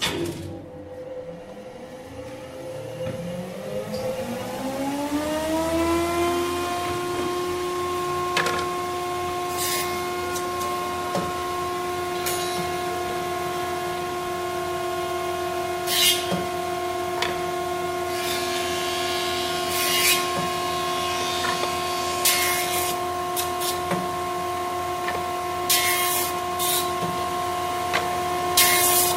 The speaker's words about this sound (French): Donc après la découpe à la scie à ruban, on va dresser une pièce de bois avec une machine qu'on appelle la dégauchisseuse.